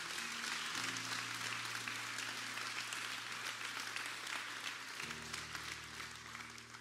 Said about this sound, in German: Gib doch mal einen fetten Applaus für all die, die entschieden haben.